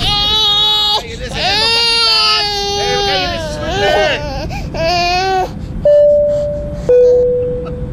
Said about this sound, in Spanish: con todo respeto a las personas que están teniendo los niños que están llorando, con todo respeto, por favor, de dormirlos o a ver cómo le hacen, porque hay gente que está descansando ahorita en el vuelo.